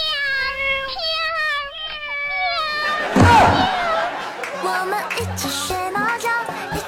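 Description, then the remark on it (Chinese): Cats yowl in long, wavering, high-pitched wails that bend up and down, then a sudden loud burst cuts in, followed by busy, jumbled noise and indistinct voices. “不要看到流浪猫就非要蹭过去，奇怪的嚎叫。”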